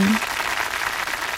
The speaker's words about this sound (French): Tonnerre d'applaudissements.